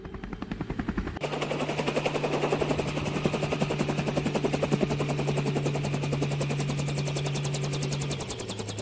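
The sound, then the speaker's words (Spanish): A landing helicopter's engine roars with rapid, steady rotor chopping and a sustained low hum, loud and continuous after a brief quieter start, with no voices. “Apenas el motor de la máquina se detuvo, el doctor y Sinobito corrieron a abrir la puerta.”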